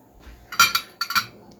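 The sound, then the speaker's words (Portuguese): Cutlery clinks against a plate of sliced salami in two quick clusters of bright metallic taps, fairly loud, with a short pause between them and no talking. “Eu já cortei um salaminho aqui, ó.”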